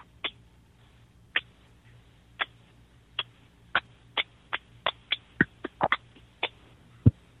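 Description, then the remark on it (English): A lone person claps slowly, about once a second at first, then speeds up into quicker, uneven claps, each a sharp, fairly quiet smack against a faint background hum. “that was the slow clap”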